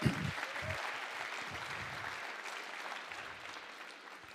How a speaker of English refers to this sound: Let's give him a round of applause, you know?